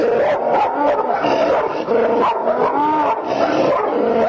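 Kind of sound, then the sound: animal, pit bull dog barking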